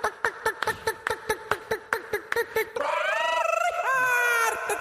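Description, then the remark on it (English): A person's voice imitates a chicken, starting with a quick run of short, rhythmic clucks and then breaking into a longer, warbling crow-like squawk, loud. “You want to cluck along?”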